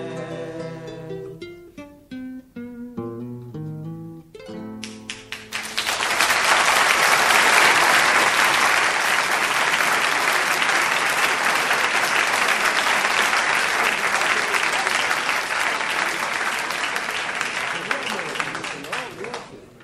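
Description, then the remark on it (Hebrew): A few final musical notes fade out, then an audience bursts into loud, dense applause that holds steady for about fourteen seconds before tapering slightly at the end. “קודם כל, לכל מחיאות הכפיים תזכרו.”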